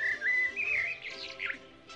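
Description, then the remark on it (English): Bright chirps and tweets from a little bird warble quickly for about two seconds, a run of high, whistly calls with no talking, clear above faint low background noise. “It's the bird, senor.”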